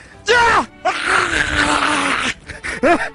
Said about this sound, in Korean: 이 가래소리 같은 비명은 사람들의 심금을 울렸고 합성 필수 요소가 되어버리는데요.